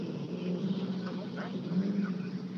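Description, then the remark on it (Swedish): A rally car engine roars during a rally as the driver revs it out, a steady, low, gritty drone for a couple of seconds, with faint voices murmuring underneath. “Det är ganska kul att lyssna på sin egen bil, eller hur?”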